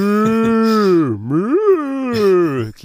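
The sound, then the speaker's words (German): A voice actor lets out a long, drawn-out groan that dips low and rises again, sounding much like a cow mooing, loud for nearly three seconds. “wie eine Kuh.”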